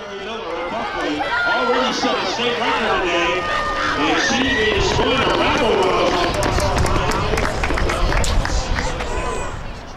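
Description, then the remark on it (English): A large crowd cheers and shouts continuously at a 100-meter race at a Connecticut high school track and field event, many overlapping voices forming a loud, steady roar with sharper yells rising out of it for the whole stretch. “It's the sound of Connecticut's high school track and field event, 100 meter,”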